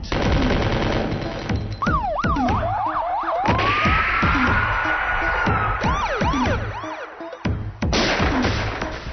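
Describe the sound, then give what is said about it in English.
A passing siren sound effect wails up and down repeatedly, loud, layered over a heavy driving beat with sharp percussive bursts in a band's mix, the long rising wail stretching across the middle. “Blood up on the ground and rolling past siren.”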